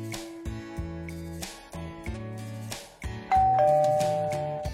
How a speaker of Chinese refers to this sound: 门铃响了，小趣去开门，原来是小猫喵喵。